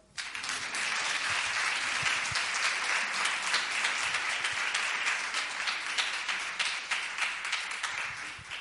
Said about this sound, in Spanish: De aplausos, por favor.